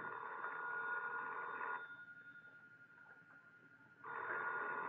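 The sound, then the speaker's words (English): A telephone rings twice, each long, buzzing ring separated by a pause of about two seconds. The ringing is loud, with no voices. “That's your phone, Mr.”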